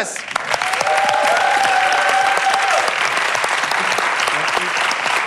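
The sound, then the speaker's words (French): Steady, dense applause from an audience welcoming comedian Alex Ramirez on the show Crac Crac Club, loud and sustained for several seconds with a faint whistle or cheer cutting through early on, no clear speech. “Merci d'applaudir Alex Ramirez.”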